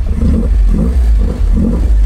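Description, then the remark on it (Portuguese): A classic Alfa Romeo engine revs repeatedly through its Weber carburetors, a deep throaty rumble rising and falling in several quick bursts, loud with no talking. “tudo isso e deixa o motor dar uma giradinha. Deixa os Weber darem uma puxadinha de ar.”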